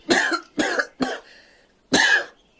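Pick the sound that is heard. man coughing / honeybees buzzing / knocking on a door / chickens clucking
man coughing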